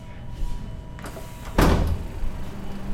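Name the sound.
door opening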